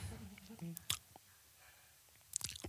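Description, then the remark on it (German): Quiet wet lip smacks from someone chewing, with a sharp smack near the start and a cluster of clicky mouth sounds near the end, over a soft murmur of voice early on. “Schmatze ich.”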